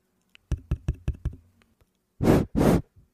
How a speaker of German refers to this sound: Das war jemand, der mit dem Finger auf ein Mikrofon klopft und reinpustet, um rauszufinden, ob es funktioniert.